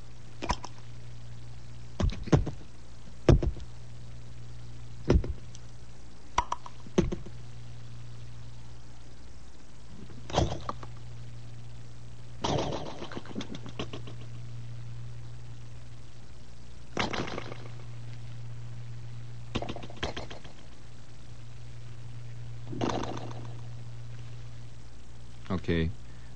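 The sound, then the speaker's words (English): A voice imitates cream of wheat just arriving at the boiling stage, making irregular wet mouth pops and blurps spaced unevenly over a low steady hum, some pops sharp, others softer and drawn out. “That is my surrealistic version of the sound of cream of wheat just arriving at the boiling stage, which is a very exciting stage for a young boy to go through, the boiling point.”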